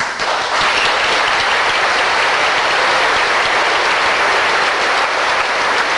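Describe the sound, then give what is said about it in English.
Loud, sustained applause from the audience of a debate on secular humanism versus Christianity, after a debater's speech ends, a dense wash of many hands clapping at once that holds steady at full strength for several seconds without pause or talk. “you would, if you would please hold your applause.”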